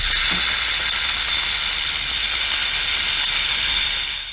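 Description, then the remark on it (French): A rattlesnake's tail rattle, made of interlocking keratinized segments, buzzes in one continuous, dry, hissing whir, loud, holding steady for several seconds before trailing off at the end. “Comment fait-il du bruit les serpents à sonnette n'ont pas à proprement parler de grelots au bout de la queue.”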